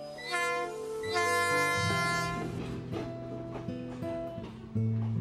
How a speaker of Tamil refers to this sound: train start ஆயிடுச்சு